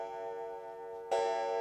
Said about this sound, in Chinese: 他们边谈边吃，谈信仰，谈他们的今后，直到缓慢的零点钟声回响在整个大厅里。